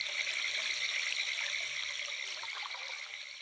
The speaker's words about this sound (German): Das klare Wasser des Baches springt über kleine Steinstufen.